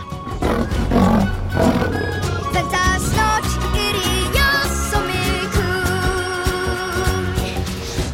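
A lion roars loudly, the deep rumbling growl sustained over several seconds, blended with a dense layer of dramatic, tonal background music.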